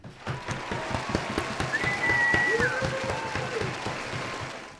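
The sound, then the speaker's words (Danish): A crowd applauding, with dense, continuous clapping that swells slightly in the middle and holds steady for about five seconds. Faint whistles glide over it partway through. “det var hele øh, Danmark, der klappede med der.”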